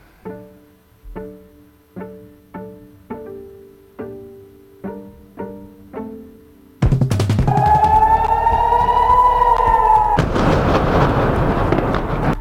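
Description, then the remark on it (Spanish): A loud, sustained rocket air raid siren in Israel wails over heavy rumbling noise, following a series of evenly spaced tonal notes; no one speaks. “obviamente había mucho miedo, eh, empezaron a sonar las alarmas de los cohetes.”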